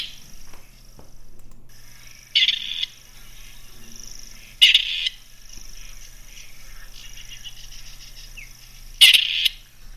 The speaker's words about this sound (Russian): Вот так, уважаемые радиослушатели, вы познакомились с голосом птицы 2021 года серой куропаткой,